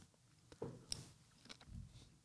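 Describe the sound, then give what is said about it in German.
A quiet bite into a juicy pineapple, followed by a few soft crunching and wet chewing sounds at an uneven pace, with no talking. “Sorry, aber ich musste kurz mal in die Ananas reinbeißen.”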